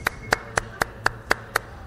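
Seven sharp hand claps in a steady, even rhythm, about four per second, crisp and fairly loud with nothing else going on.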